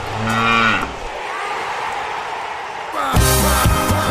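A cow moos twice, a low, drawn-out call in the first second and another long, loud moo starting around three seconds, with a steady wash of background noise between them.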